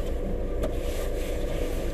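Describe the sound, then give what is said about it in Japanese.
Steady low rumble of engine and road noise from inside a running Suzuki Hustler, a loaner car from a car dealer, constant and fairly loud throughout, with a faint airy hiss on top and no voices. “今日はですね私、えー、スズキのねハスラーという車に乗っていますこれはねあのー、車屋さんから借りている台車ですね”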